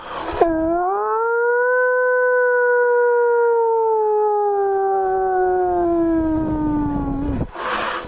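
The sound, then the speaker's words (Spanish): A school recess siren imitated by a voice: one long, loud wail held for about seven seconds, starting abruptly and sliding slowly downward in pitch before cutting off, with nothing else behind it. “Perdona que te corte, compañero, porque en este momento suena la ansiada sirena del recreo.”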